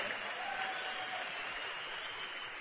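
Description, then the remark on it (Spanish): A crowd claps steadily in a dense, continuous wash of applause that holds an even, fairly loud level throughout, with no voices standing out above it. “El aplauso no es para mí, es para ustedes y para el de al lado.”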